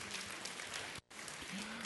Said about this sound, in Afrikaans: Geef hulle lekker hande klap toe man. Ek dink hulle het goed gedoen.